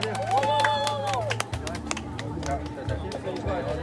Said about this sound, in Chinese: 来，准备要下刀了。准备历史性的一个，好，结束了，大家鼓掌好吗？